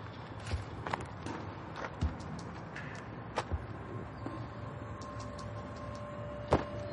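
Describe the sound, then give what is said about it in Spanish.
Slow, uneven footsteps of a security guard walking around a car tread across hard ground, each step a crisp tap spaced irregularly over several seconds, over a quiet background hum, with no talking. “Al oír alejarse los pasos, el profesor se relaja y sonríe aliviado.”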